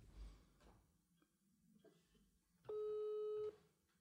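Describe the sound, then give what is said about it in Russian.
A single loud telephone busy tone, a steady electronic beep lasting under a second, sounds near the end after a stretch of quiet background rustling, heard while calling a friend who has gone to the toilet. “Что-то занят чем-то.”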